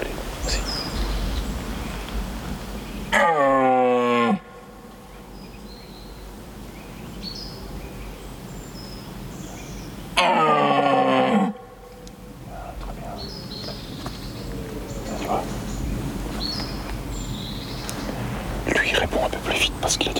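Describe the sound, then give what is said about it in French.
Two loud, hoarse bellows of a rutting red deer stag ring out several seconds apart, each lasting over a second, over quiet woodland ambience with faint birdsong and soft whispering voices. “D'abord la période de reproduction, qui s'appelle le brame, et également le cri du cerf émis pendant cette période de reproduction.”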